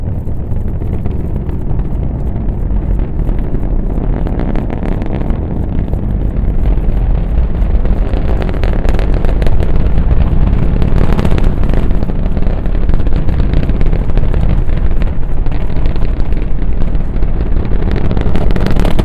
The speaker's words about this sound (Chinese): 还有另外一个博主 The Sound Traveler，他会带着他的录音设备去全世界旅行。你现在听到的就是他现场录制的猎鹰重型运载火箭的发射声音，特别的酷。